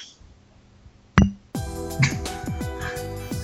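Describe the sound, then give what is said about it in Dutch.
Glasses clink together in a toast: one sharp ring, then a cluster of bright, ringing clinks that overlap and fade, heard with no talking. “Wacht even, dan zeg ik proost, hè? Let op.”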